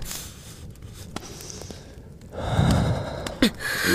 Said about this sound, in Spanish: A ver, míreme a los ojos. Respire profundo.